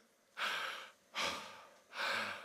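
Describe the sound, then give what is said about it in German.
Three slow, deep breaths, each a broad airy rush lasting about half a second, separated by short pauses, with no talking. “Solange du atmest, wer atmet?”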